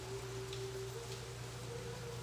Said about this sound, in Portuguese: Assim como agora onde eu estou, cai uma chuva intensa do céu